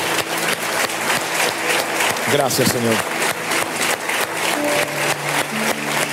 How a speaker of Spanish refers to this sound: Y le damos un aplauso al Señor. Gracias, Señor. Gracias, Señor.